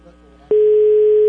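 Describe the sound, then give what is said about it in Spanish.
A loud, steady electronic telephone tone at a single mid-low pitch begins abruptly after a faint hum and holds without a break until the end, like a busy signal on a line, as a number is redialed and no one answers. “A ver, le estoy marcando otra vez. A ver si me bueno. nadie está contestando, ¿verdad?”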